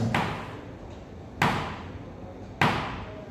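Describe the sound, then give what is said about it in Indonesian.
A shepherd's staff thumps the ground three times at a steady, slow pace, each sharp knock ringing out briefly before fading. No voices are heard. “dia lewat cuma tak tak tak gitu ya tongkat itu menghibur tapi ingat itu di lembah kekelaman gimana caranya bisa menghibur tongkat sang gembala akan dia hentakkan”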